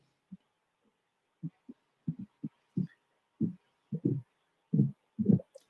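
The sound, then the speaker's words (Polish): A caller's heartbeat comes through a phone line as muffled, low thuds, mostly in pairs, growing louder and closer together over a few seconds, with no one speaking. “Słyszę, że bije ci serce.”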